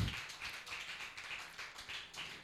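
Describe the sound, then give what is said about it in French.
An audience applauds God, a dense, steady wash of many hands clapping that carries on without a break at a moderate level with no voices. “On acclame Dieu plus fort que ça pour tout ce qu'il fait.”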